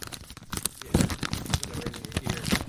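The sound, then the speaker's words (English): A white paper envelope from imagineNATIVE Film and Media in Toronto, Ontario, is torn open in a series of crisp ripping and crinkling bursts, uneven in rhythm and moderately loud, with no talking over it. “I'm holding in my hands a white uh, envelope. I'm opening it. You can hear the ASMR happening.”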